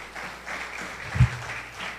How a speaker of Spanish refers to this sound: Denle un fuerte aplauso a nuestra Dios.